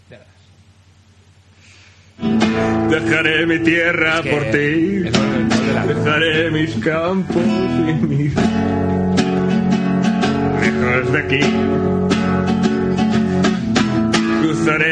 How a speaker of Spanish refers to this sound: Estás cantando un tema de ….